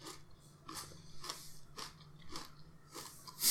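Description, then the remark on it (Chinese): Crisp, crunchy chewing of a grain bar made of coarse grains mixed with protein powder, with bright bite-and-crunch bursts repeating roughly every half second in a steady rhythm, moderately loud, with no talking over it. “就是嗯，然后因为我其实我自己没有吃过这类的东西。 那好吃吗？”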